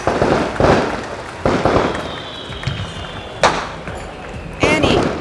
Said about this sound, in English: Oh, and enjoy the fireworks!